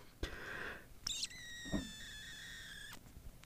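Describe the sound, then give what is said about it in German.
Faint, high-pitched squeaks of air pushed out of a person's eyes: a short raspy one, then a longer, steady whistling squeak lasting over a second, quiet with no talking. “Man hört ein Quietschen, aber ich weiß nicht, ob das deine ja, Augen sind.”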